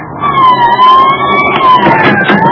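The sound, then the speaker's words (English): Police car sirens wail loudly and steadily, the sustained tone sliding slowly over traffic rumble as police cars pull up before 3742 Waverly Court, with no voices. “The police cars were blowing up before 3742 Waverly Court as I arrived.”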